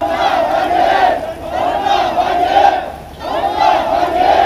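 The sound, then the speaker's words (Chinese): A large crowd of desperate Evergrande investors shouts angrily in a loud, continuous roar of raised voices, briefly dipping for a moment before surging back up just as strongly. “绝望的投资人悲愤怒吼，恒大的高管全身无力瘫在地上，公司眼看着要倒，谁也不知道该怎么办，能怎么办？”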